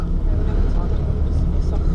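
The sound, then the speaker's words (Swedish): A bus engine drones steadily from inside the cabin during a ride from Klaipeda with a rented bicycle aboard, a loud, continuous low rumble with road noise that holds even and unbroken throughout, with faint voices mixed into the hum. “På buss med cykel som har hyrt från vandrarhemmet i Klaipeda.”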